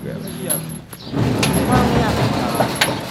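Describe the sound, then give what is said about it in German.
The sliding door to a rehabilitation centre at a provisional clinic in Mesot is pushed open, a steady rolling rumble with a few sharp rattles and clicks along the way, ending in a short clack, over a faint murmur of background voices. “Sie schiebt die Tür zum Reha-Zentrum auf, einem Raum mit ein paar Fitnessgeräten.”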